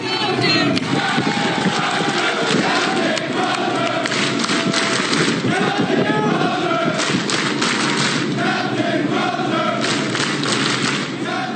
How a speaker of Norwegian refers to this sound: Det er 5000 ja. som er på båten. Eh, og når han går av skipet, så kan vi høre lyden av hva mannskapet syns om en kaptein som setter folka sine foran uh, politiske interesser til den sittende presidenten.